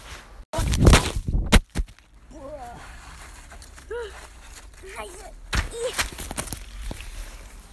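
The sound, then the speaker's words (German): A smartphone clatters down onto hard, rocky ground: a few loud, sharp knocks and scrapes in quick succession. Then quieter rustling and a voice talking softly. “Mir ist mein Handy runtergefallen.”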